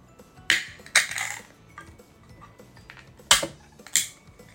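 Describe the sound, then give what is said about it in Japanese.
An Asahi beer can being opened: four sharp, crackling metallic pops and clicks in two pairs, each with a brief fizzy tail, with no one talking. “ちょっと相方さんはビールも一緒に飲んでいただこうと思って朝日の生ジョ期間第2弾食栽ですねあどうぞ開けてくださいいいですかどうぞ”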